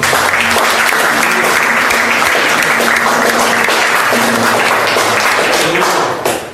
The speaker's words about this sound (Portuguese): Aplauda o Senhor.